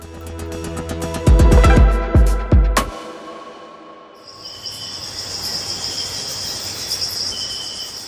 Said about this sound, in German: Das ist News Plus und wir nehmen dich mit tief in den Regenwald.